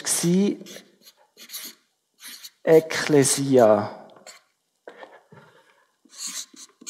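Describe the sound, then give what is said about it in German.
Short, scratchy strokes of a word being written on a board come in a few brief bursts, with a man speaking a single word between them. “Äh, ich schreibe es einfach mit unserer Sprache.”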